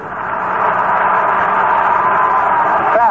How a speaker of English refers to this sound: crowd getting a bit enthusiastic here. Anytime you get behind on Brock or anybody, there's a big crowd here, over 40,000.